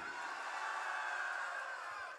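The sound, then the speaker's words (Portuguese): A rap battle crowd cheers and makes noise for the rhymes of a rapper, a steady, dense roar of many voices that holds at an even loudness for about two seconds before easing slightly at the end. “Barulho para rimas de …!”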